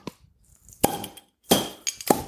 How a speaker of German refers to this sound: Plopflasche, halber Liter Altbier vor uns